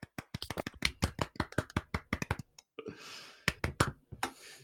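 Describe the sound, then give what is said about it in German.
Short round of applause: quick, crisp hand claps in a fast, uneven run, a brief lull with a soft rushing hiss, then a few more claps to finish. No talking. “Das ist auf jeden Fall ein Applaus wert.”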